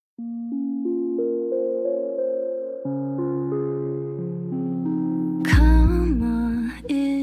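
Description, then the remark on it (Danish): The intro of a pop song by a female artist, used by TV2 for a show finale, opens with sustained, stacked synth chords that step upward, then a louder, fuller burst near the end brings in sliding vocal-like tones over a deep bass. “Og øh, du kan lige høre et indløb på den.”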